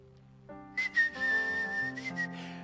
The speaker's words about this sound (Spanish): Y ahí ibas. Yo silbaba.